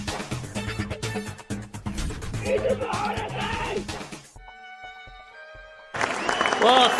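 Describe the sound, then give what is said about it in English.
A live crowd at the Grand Library cheers and claps loudly for the three-year anniversary of Books Boys, with a brief musical interlude in the middle before the cheering and applause surge back up near the end. “It's three years of Books Boys, hence the uh, the cheering, the crowd.”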